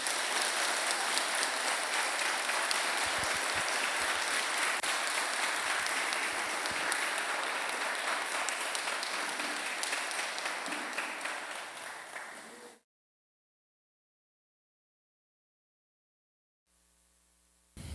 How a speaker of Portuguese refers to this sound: Se Deus falou com você esse dia, dê uma salva de palmas para Ele aí, bem forte.